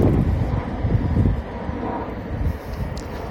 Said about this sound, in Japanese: 再び電車が流れていく音